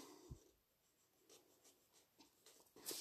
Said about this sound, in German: Deswegen würde ich sagen, ich zeichne jetzt hier einfach mal die Namen von meinem selbst ausgedachten Clan ein.